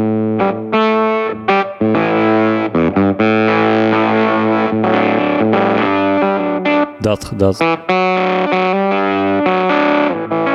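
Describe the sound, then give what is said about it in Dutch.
Electric guitar through a battery-powered fuzz pedal, playing a loud, saturated riff of thick, buzzy sustained notes and chords, broken by a few brief stops and choppy strums. “Ik ben heel erg into die soort neuzige eh, fus sound.”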